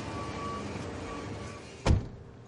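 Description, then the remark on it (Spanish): A steady low vehicle hum runs throughout from a car stopped inside an industrial compound, then a single solid car door thud near the end as someone gets out, followed by quieter hum. “Baja del coche.”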